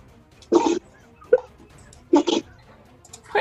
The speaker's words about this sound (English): Yeah, what is going on? My dog is sneezing.